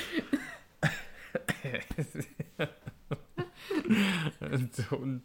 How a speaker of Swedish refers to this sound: Hostade upp halva, halva ölen.